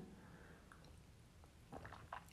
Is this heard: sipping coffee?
yes